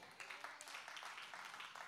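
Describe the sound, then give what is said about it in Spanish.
Thin, scattered applause from a church audience, given to the glory of God, soft and uneven throughout, with no voices over it. “Se oye medio, se oye medio probetón ese aplauso, hermanos.”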